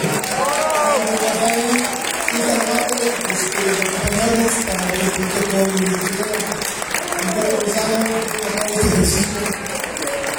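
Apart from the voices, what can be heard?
audience applause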